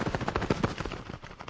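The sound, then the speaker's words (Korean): A rapid flurry of pigeon wing flaps on a mountain as night falls, a quick run of soft, papery beats filling a second and a half, fairly loud with no voices over it. “참 비둘기였구만.”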